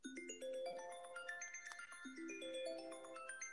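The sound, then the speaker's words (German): A soft lullaby melody plays on bright, chime-like tones, single notes stepping up and down at a gentle, steady pace with no voices over it. “Das klingt wie so ein Schlaflied.”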